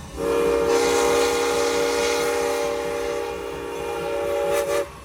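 A passing train sounds its horn in one long, loud, steady blast lasting several seconds, layered over the broad rumble of the rail cars, then cuts off abruptly.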